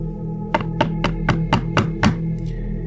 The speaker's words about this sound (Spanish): A eso de las nueve y cuarto, comenzaron los golpes en la puerta del balcón.